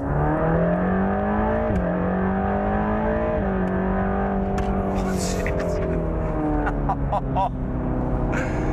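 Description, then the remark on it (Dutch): A Mercedes-AMG GT Black Series sports car engine accelerates hard, its roar climbing steadily in pitch with brief dips at gear changes, droning loudly throughout with a few sharp bursts near the end. “Met Junior Absolute Motors kreeg hij de sleutel van een Mercedes AMG GT Black Series in de hand gedrukt.”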